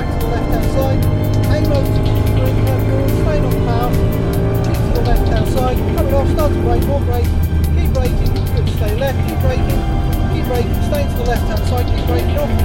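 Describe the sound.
The engine of a Mercedes-Benz C63 AMG Coupé Black Series roars loudly for the whole stretch as the car is driven around a racing circuit, its pitch climbing and dropping as it revs through gears, with a voice talking over it.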